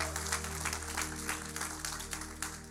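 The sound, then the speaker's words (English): A church audience claps in a dense, steady round of applause for a few seconds during a morning service, applause given to God, many hands blending into a bright patter, while low sustained notes hum underneath. “Come on, give a round of applause to the great God that we serve.”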